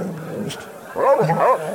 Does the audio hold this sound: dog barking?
yes